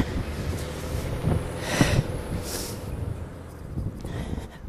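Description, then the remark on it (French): A fire truck passes by outside, its low engine rumble steady throughout, with a couple of brief hissing bursts partway through. No one speaks. “Là, j'ai un camion de pompiers. Bonjour les pompiers, on va attendre que ça passe parce que sinon vous m'entendrez plus.”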